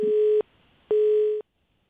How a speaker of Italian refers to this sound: No. Allora, sento che la linea è occupata, mi sembra.